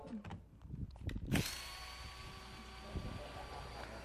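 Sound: power drill whirring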